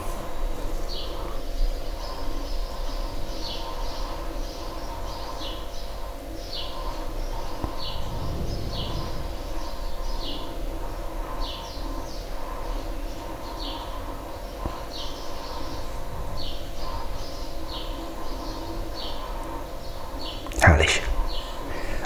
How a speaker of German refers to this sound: Also wenn ich wirklich so mitkriege, dass man gar kein Auto hört, nur die Vögel, das ist schon schön.